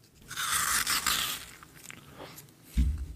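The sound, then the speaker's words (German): Crunching and biting into a frozen water ice pop: a dense second of crisp, crackling bites, then quieter scattered crunches and a soft low thump at the end. “Äh, ASMR, ne? Wassereis crushen.”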